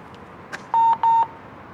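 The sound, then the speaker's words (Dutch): A transit card reader gives its check-out signal as someone checks out: two short, bright electronic beeps in quick succession, loud, over a faint background hum with no one talking. “Even uitchecken hoor. Oh, dit is top audio.”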